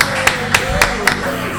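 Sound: applause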